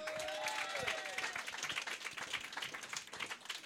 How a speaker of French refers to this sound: je veux qu'on l'applaudisse pour sa patience, parce que ça fait longtemps qu'il n'a pas crié.